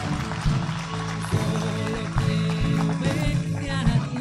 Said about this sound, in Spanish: Fuertes aplausos.